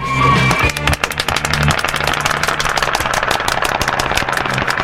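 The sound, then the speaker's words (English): A canned applause effect played for a show's guest: steady, dense clapping that fills the whole stretch at a loud, even level, with a low tonal hum or cheer underneath for the first couple of seconds. “Actually, let's give that round of applause properly.”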